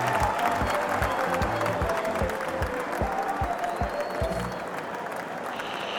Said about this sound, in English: And our final four races big round of applause for Brancus, Dolphus, Doris, and Carico.